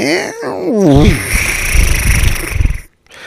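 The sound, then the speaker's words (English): A person imitates a horse snort: a wavering voiced whinny slides into a loud, fluttering lip-blown rumble lasting a couple of seconds, then cuts off abruptly. “that's a good horse sound when he takes it.”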